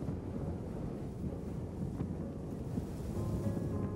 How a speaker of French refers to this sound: Le vent me glace le visage.